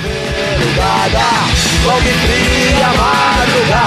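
A loud, fast hardcore punk song, a Brazilian band's homage to São Paulo, plays in the background, blasting with pounding drums, dense distorted guitars and shouted vocals, driving continuously at full volume.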